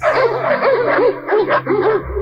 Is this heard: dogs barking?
yes